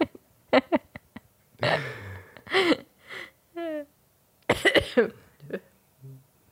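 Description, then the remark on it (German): Several sharp coughs, throat-clearing and nose-blowing sounds, fairly loud, coming in short bursts with pauses between them, along with some brief voiced noises. “Alter, ich wollte gerade Zeit überbrücken, während du geschneuzt und gehustet hast.”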